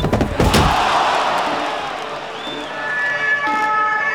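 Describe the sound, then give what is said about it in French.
A heavy door slams, then a fire engine's siren wails steadily over street noise in Vesoul, France, near 8 pm, its tones holding on for several seconds as the fire service vehicle pulls away, taking a man to hospital. “Il est près de 20h quand le véhicule des pompiers évacue Jonathan Daval vers l'hôpital de Vesoul”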